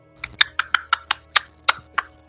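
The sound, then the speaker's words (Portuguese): Horse hooves clip-clop in a quick, even rhythm, about a dozen crisp knocks in a couple of seconds, clear with no voices over them. “Cara, o cavalo tá vivo.”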